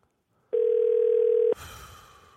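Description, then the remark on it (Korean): A single steady phone ringback tone sounds for about a second, loud and clear on the line, as a call is placed to a listener, then cuts to a soft hiss of an open connection. Nobody speaks. “3115님 전화 한번 걸어볼게요”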